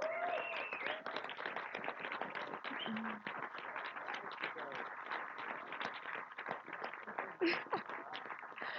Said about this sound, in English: If you're a Monash student, just stand up so that um, they can see you. Let's just clap hands with them.